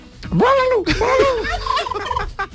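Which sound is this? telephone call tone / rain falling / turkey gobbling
turkey gobbling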